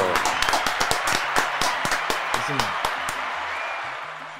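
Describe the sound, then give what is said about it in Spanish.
An audience breaks into applause, a dense wash of clapping with sharp individual claps standing out early, holding fairly steady before gradually easing off toward the end. “Eh, Señores, yo no tenga la aplauso a Willy Sotelo en el otro barrio.”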